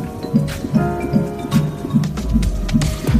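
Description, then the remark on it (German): A fast, steady whooshing pulse of a fetal heartbeat picked up by an ultrasound doppler, about eight soft rhythmic thumps over a hiss of static, with no one speaking. “Hören Sie das? Das ist der Herzschlag Ihres Babys.”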